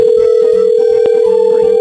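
A steady, unbroken telephone dial tone hums loudly through the whole moment as a call is being placed, a single constant pitch with faint background murmurs beneath it.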